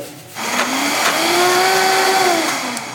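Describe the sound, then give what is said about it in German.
A blender whirs loudly, its motor starting up and settling into a steady high-pitched drone with a rising and falling whine as it purées frozen bananas and blueberries, continuous. “Also ich habe jetzt erstmal nur die Heidelbeeren mit den Bananen püriert.”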